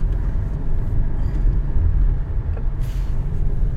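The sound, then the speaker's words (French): A steady, heavy low rumble of a car engine and road noise heard from inside the cabin, droning continuously as the vehicle climbs through a forest, with the outside temperature at minus one degree and no one speaking. “Ah, je, suis très bien au chaud dans votre voiture.”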